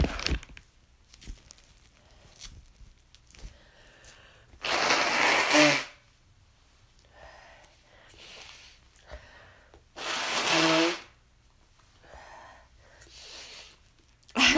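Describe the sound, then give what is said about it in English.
Two loud, forceful nose blows about five seconds apart, each a harsh, airy burst lasting roughly a second, with soft rustling and shuffling in between and no talking. “And I just lost the page because I need to blow my nosey again.”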